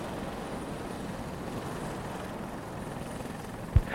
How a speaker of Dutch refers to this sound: Er staat een helikopter dus hier, op de plaat, waar anders altijd het schip aanmeert. En, en drie, eh, drie mannen met oranje overalls, die gaan met het hondje, gaan ze in, het, eh, in de helikopter.